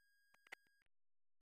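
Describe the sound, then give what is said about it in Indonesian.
A short electronic YouTube notification chime: a faint soft blip, then after a pause a brighter, louder beep with a quick echo at the end, heard alone with no voices. “jadi ya itulah dia ada notifikasi YouTube”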